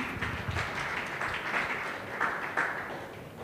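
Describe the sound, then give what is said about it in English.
A crowd claps for Jesus, many hands blending into a dense, continuous patter of applause at a moderate level, with a few sharper claps standing out. “Clap your hand for Jesus.”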